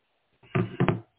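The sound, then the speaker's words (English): Three quick, firm knocks on a door by a FedEx delivery driver, one then a close pair, with no voices around them. “FedEx came to the door.”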